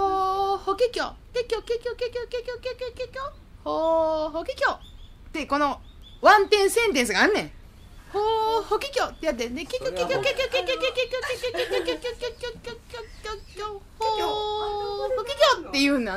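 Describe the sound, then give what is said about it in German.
Nightingale song in varied phrases: warbling whistles, quick trills and repeated notes, separated by short pauses. It is fairly loud, with no other sounds. “Eigentlich klingen Nachtigallen ja so.”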